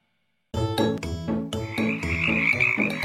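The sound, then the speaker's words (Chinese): After a brief silence, frogs croak loudly in a quick, steady rhythm of throaty pulses, and a high-pitched continuous trill joins partway through. No one speaks. “公牛和青蛙。”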